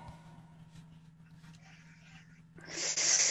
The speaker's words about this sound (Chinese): 老别老别老喘气儿，老妹儿，哎哎，一会儿这期这期节目给我禁了，别老喘气儿，不好。